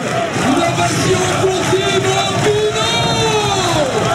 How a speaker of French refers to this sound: incroyable, image, incroyable ambiance. Ici, on se croirait dans un stade de foot. C'est quand même l'homme qui a transformé euh, les, espaces cyclistes en stade de foot. Hein. Écoutez encore, écoutez encore.